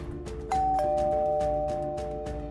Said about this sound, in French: Le bruit de la sonnette retentit comme un glas, car Ramirez se souvenait parfaitement de ce que celle-ci annonçait.